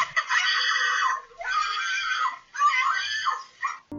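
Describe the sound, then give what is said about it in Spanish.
A boy screams loudly and protests in three long, strained bursts with brief breaks between them, sounding like frantic protest. No speech is heard. “Gritó y protestó el niño con todas sus fuerzas, pero todo fue inútil.”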